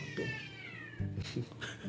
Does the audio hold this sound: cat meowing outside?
yes